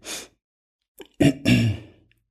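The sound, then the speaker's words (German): A person with a cold takes a short, noisy breath, followed after a pause by a heavy, voiced exhale like a sigh, with rough, congested breathing and no words spoken. “also du merkst es, sorry, ich schnaufe ein bisschen, ähm, also eine Erkältung zieht so zart durch”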